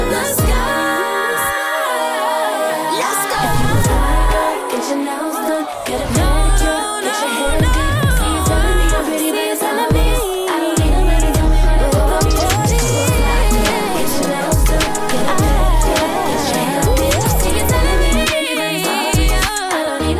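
A loud, instrumental hip-hop/R&B groove plays without vocals, driven by punchy deep bass kicks in a steady rhythm under layered synth melodies, sustained throughout as the song winds down.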